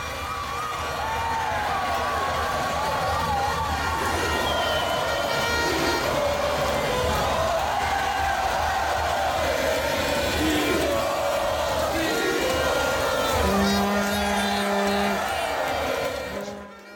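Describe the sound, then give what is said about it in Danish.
A dense, continuous wash of crowd voices and shouting over steady traffic rumble at a large roundabout by the old San Pedro Mall in Costa Rica, with a few car horns standing out in the second half of the seventeen-second stretch. “Nej, det er fra, øh, hvis der nu sidder nogen, der lytter med, som kender Costa Rica, så er det nede øh, i rund, en, stor, en stor rundkørsel nede ved det gamle San Pedro Mall.”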